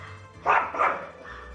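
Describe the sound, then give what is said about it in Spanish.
A small dog barks twice in quick succession, sharp, followed by a fainter trailing yelp, with a quiet background otherwise. “Protegerán tu casa y ladrará para avisarte ante cualquier cosa que él considere extraña.”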